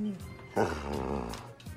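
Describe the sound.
A dog lets out a fairly loud growling whine that rises abruptly and wavers for about a second before trailing off, with a short voiced sound near the end.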